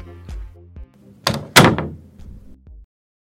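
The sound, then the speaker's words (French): A door is opened to let in a visitor waiting downstairs: low handle rattles and creaks lead into two sharp, loud clacks of the latch and door, followed by a brief low rumble as it swings. No one speaks. “Ah je suis en bas, tu peux venir m'ouvrir s'il te plaît J'arrive meuf, je descends.”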